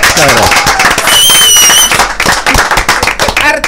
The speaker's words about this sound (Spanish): Bueno, señores, vamos a recibir con un fuerte aplauso al artista